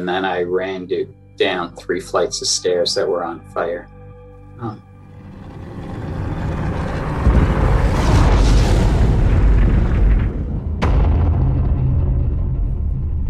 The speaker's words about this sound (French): à 9h59 minutes, la tour sud est la première à s'effondrer dans un fracas indescriptible. 10 secondes interminables.